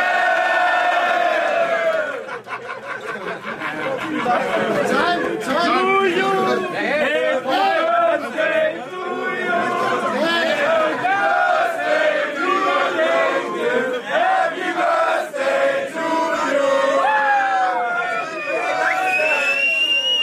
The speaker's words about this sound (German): Er hatte nicht mal Geburtstag, die singen Happy Birthday.